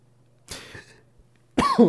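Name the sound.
coughing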